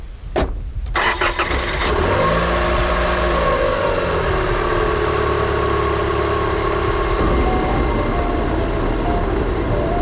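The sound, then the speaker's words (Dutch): After a few clicks and a brief starting crank, a car engine settles into a steady, loud hum as the car drives east toward the Zutphen area, with constant road and engine noise throughout. “Nou, de radio uitdoen trouwens. In de auto. Onderweg naar het, eh, naar het oosten.”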